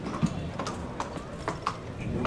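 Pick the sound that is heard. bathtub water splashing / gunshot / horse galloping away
horse galloping away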